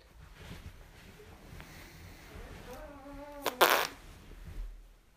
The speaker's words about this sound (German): Zu laut habe ich gepupst.